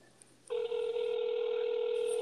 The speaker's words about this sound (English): How do y'all not know how to answer the goddamn phone? They never do.